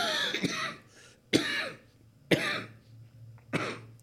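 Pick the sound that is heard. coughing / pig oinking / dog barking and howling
coughing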